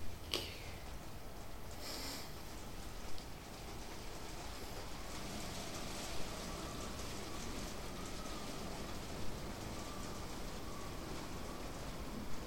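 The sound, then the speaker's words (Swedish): Steady rain falls diagonally throughout, a dense, even hiss of drops, with a few slightly louder patters or splashes now and then and no voices. “Nu kommer regnet.”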